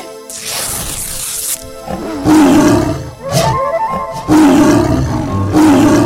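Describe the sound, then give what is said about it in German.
A tiger roars loudly, in repeated long, rasping bursts with brief pauses between them, the roars growing deeper and more forceful toward the end. “Der Tiger ist los!”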